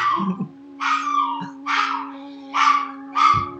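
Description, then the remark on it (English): Dogs bark five times in a steady rhythm, each bark loud and sharp, with a faint constant hum underneath and no talking. “yeah, I, I know what it is to have ill-behaved dogs”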